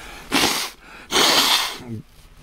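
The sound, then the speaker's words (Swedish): Someone blows their nose in two loud, hissing bursts, the second longer than the first, with a short throaty sound right after. “Nu måste jag snyta mig.”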